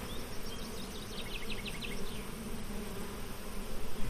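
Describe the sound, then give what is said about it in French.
A calm, gentle honeybee buzzes while circling around a person, its steady drone rising and falling, with faint outdoor ambience underneath and no voices. “Celle-là, par exemple, qui tourne autour de toi, elle est douce.”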